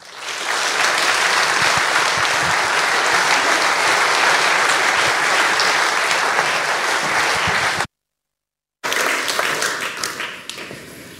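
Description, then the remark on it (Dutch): An audience at De Rode Hoed in Amsterdam applauds steadily for minister Sigrid Kaag, a dense wash of many hands clapping at constant loudness, broken by a second of silence before the clapping resumes and starts to thin out. “Dames en heren, graag u aandacht aan uw applaus voor mevrouw Sigrid Kaag.”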